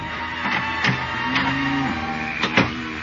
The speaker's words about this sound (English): But I left the door open a crack, and a few minutes later heard the street door open.